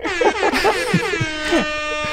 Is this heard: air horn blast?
yes